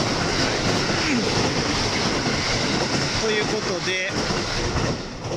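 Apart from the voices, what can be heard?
passing train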